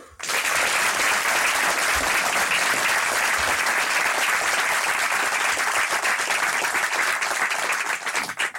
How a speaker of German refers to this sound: Herr Ganser, Ihr Applaus